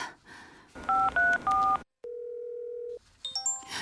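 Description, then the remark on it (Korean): Three quick telephone keypad tones beep in succession as a call is placed to someone at their workplace, followed by a steady, low electronic ring tone lasting about a second, then a scatter of brighter electronic beeps. No one speaks. “회사에 있는 사람한테 전화해서 뭐 하자는 거야?”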